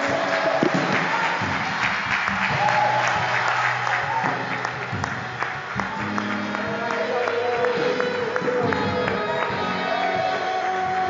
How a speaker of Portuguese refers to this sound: E em gratidão ao Senhor pela vida que Ele te deu, aplauda ao Senhor, aplauda o único que é digno. Em gratidão a Ele, em gratidão.